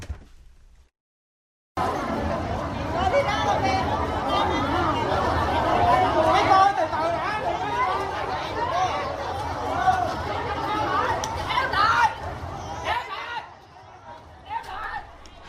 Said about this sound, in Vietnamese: Vâng, đó là những âm thanh mà chúng tôi thu lại được trên mạng xã hội, uh, tiếng nói chuyện ầm ĩ, thậm chí là tiếng cười đùa của người hâm mộ và những người đến dự tang lễ.